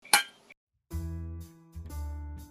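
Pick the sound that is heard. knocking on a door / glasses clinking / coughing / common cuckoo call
glasses clinking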